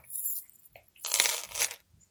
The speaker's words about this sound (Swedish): Men han kom snart tillbaka med något som skramlade. Det lät som kedjor.